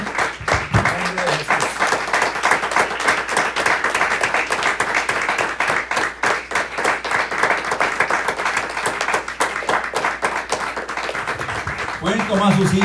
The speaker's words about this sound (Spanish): Gracias. Le vamos a dar un aplauso más al Señor de la gloria, hermanos. Bendito su nombre.